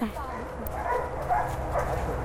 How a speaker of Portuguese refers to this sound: Achou. Tá latindo, é sinal que ele achou, hein? Vamos lá, vamos conferir.